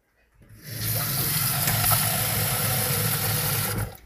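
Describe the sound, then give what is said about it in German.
Water pours steadily into a cooking pot of macaroni for about three seconds, a continuous rushing splash that starts abruptly and cuts off at the end, with no one speaking. “Wasser kocht auch gleich. Noch reintun.”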